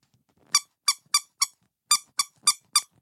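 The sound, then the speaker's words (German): A rubber duck squeaks eight times in two quick bursts of four, each squeak short and bright, with faint rustling handling noise between them and no talking. “Äh, voll cool, haben so zum Backstage hoch so einen kleinen roten Teppich gemacht und überall waren Gummienten.”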